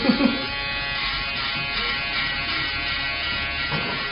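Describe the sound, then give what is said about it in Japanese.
An American-made Wahl electric barber shaver buzzes steadily, a dense continuous hum that holds level throughout, with a brief louder burst of contact near the start and again near the end. “今シェーバーを入れてますこれがシェーバーですよ音が違う”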